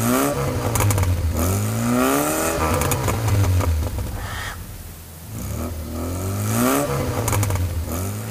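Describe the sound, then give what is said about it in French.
A car engine revs hard in repeated surges, its pitch climbing and dropping as the wheels spin in fresh snow on a poorly cleared road and the rear of the car slides out, loud with a brief lull midway. “Elle s'engagea sur le chemin mal dégagé, les roues patinées dans la neige fraîche, la voiture chassée de l'arrière.”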